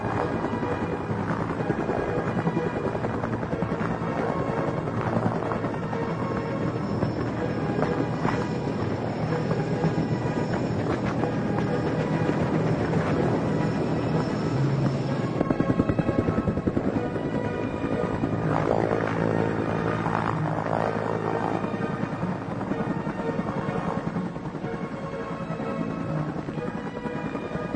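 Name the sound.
helicopter flying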